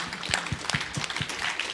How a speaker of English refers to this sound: Give him a clap.